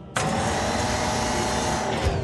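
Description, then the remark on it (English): The motor of Carly, a tall yellow gantry crane with a long crane arm and a hook at the end, starts abruptly as she lifts and loads cargo. It runs as a loud, steady mechanical whir with a faint high whine, continuing without pause for about two seconds. No voices. “When Carly lifts and loads cargo, she sounds like this.”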